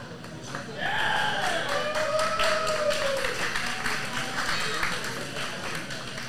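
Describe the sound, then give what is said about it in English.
A crowd at a wrestling show breaks into applause for Saban Gage from the Grindhouse about a second in, a steady wash of dense clapping that holds loud to the end, with rising and falling whistles or cheers threading over it. “A round of applause for Saban Gage from the Grindhouse.”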